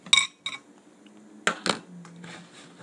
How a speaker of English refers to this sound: That's the bread in the pasta bowl, bread in the pasta bowl. Chop it all up.